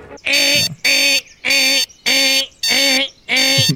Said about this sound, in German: Der Wecker in dem Zimmer von unserem wunderbaren Miguel klingelt und schreit ganz unnachgiebig, unaufhaltsam und in einem ekelhaften, widerwärtigen Geräusch das durch Mark und Knochen geht.